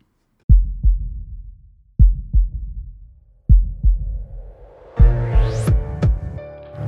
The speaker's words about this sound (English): All this and more, but first, hey DJ, gimme that heartbeat.